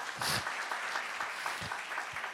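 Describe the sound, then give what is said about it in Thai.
An audience claps steadily, a dense crowd of hands producing a continuous crackling wash of applause at moderate volume, with no voices over it. “ปรบมือให้เฮียชัยหน่อยได้ไหมครับ”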